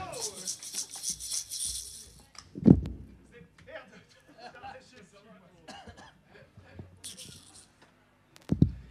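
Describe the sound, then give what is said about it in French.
Amplifiers and other gear crash to the floor in two loud thuds with rattling clatter, while people chatter and laugh in the background. “Alors, pour vous expliquer, amis qui, vous, qui nous écoutez chez vous, il a tout foutu par terre, les amplis, les machins, parce que rock'n'roll”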